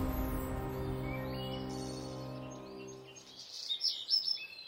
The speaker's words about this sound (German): In der vergangenen Woche war es wirklich schön ruhig in Deutschland. Die Vögel zwitscherten, die Kuhglocken läuteten, und den Kirchturm hat man auch mal wieder gehört.